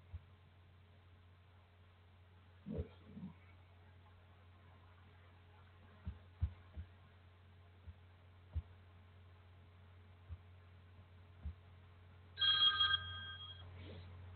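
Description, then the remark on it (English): A telephone ringback tone on an outgoing call placed from a phone to a live call-in show line: one short electronic ring bursts out near the end, after a long stretch of steady low hum broken by scattered faint clicks. “I just tried to call it from my phone, and it and it, and it's saying the show hadn't just had not started.”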